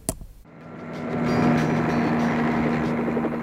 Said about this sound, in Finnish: Kuulet sä, helikopteri tulee. Ihanaa, nyt tulee! Ne tulee, helikopteri tulee!